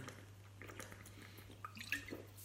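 Quiet drinking: soft wet sips and swallows of water from a glass bottle by a thirsty man, with a few small liquid clicks near the end over a steady low electrical hum. No one speaks.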